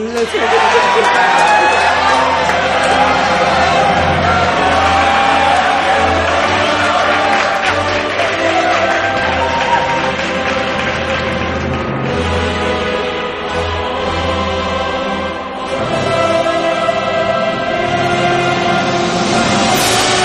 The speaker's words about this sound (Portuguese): Puta merda, aplausos.